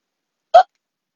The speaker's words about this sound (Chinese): 哦不，打嗝是最糟糕的，我会一直打下去的。